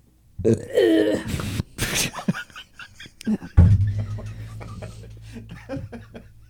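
burp

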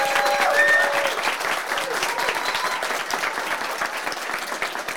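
audience applause

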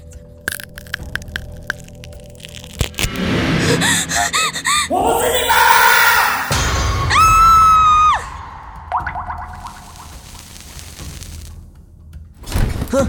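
woman screaming

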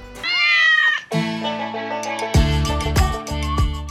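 cat meowing

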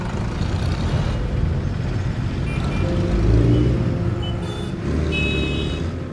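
car driving off

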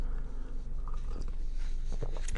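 sipping tea

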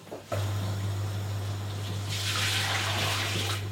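water being poured

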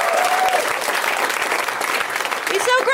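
audience applause and cheering

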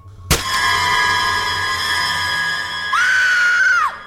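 woman screaming in fear

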